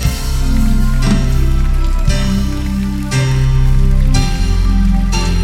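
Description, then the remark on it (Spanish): An audience applauding the Lord in a steady, continuous patter of clapping that carries over sustained organ-like music chords, with no one speaking. “Aplauden al Señor.”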